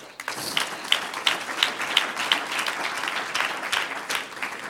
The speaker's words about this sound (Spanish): Un aplauso al Señor.